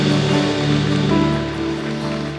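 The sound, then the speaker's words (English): A church audience cheers and gives shouts of praise to God in a loud, continuous wash of voices, with a sustained musical tone holding steady underneath the roar throughout the short burst. “Almighty God, um, we do these shouts of praise because we're not clapping on the band we're, we're cheering on about the fact that you are for us, you're not against us, Lord.”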